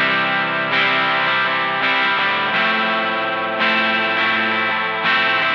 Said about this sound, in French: c'est un ingénieur en informatique qui invente tout un tas d'outils musicaux qui fonctionnent sur une simple page web. Je t'en ai déjà fait entendre. Et là, sa dernière création, développée pour le CNRS, c'est tout simplement un ampli de guitare.